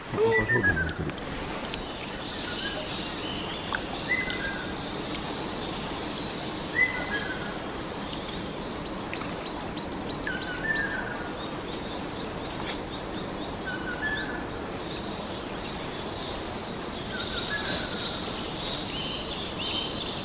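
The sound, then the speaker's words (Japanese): A ruddy kingfisher calls several times near Tinaisaaru waterfall in Okinawa, the prefecture's tallest waterfall with a 55-metre drop, short descending trills spaced a few seconds apart, over a constant high insect drone and the steady rushing wash of the waterfall. “滝からの風もここまで届いてますし赤小瓶の子ですね”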